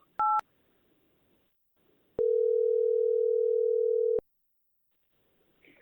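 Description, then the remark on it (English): A brief touch-tone keypress beep, then a single steady two-second ringing tone from a phone call to a mother on speakerphone, clear and fairly loud against a quiet background with no talking. “Okay, let's call your mom.”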